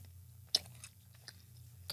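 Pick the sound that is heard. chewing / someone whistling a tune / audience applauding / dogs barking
chewing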